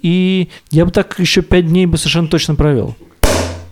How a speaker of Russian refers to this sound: Нет, ты открыл пиво корона. Открой еще одну.